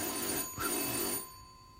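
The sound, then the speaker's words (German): A telephone bell rings with a bright, metallic, sustained tone for just over a second, then drops to a quieter lingering hum. No one speaks. “Er ignorierte das Klingeln immer noch.”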